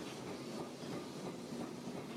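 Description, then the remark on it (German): A tram rumbles steadily along old, rusty rails, a continuous roar of wheels and metal with a faint hiss running through it, no talking over it. “Und wären da nicht die alten rostigen Gleise und die Autos hätten eine Fahrspur mehr, dann wären wir vielleicht sogar dreimal so schnell.”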